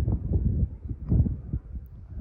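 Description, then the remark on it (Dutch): Wind blowing outdoors, heard as a steady low rumble buffeting against the microphone, swelling and easing slightly but never stopping, with no one speaking. “Ik hoop dat je mij nog kan horen met al die wind hier.”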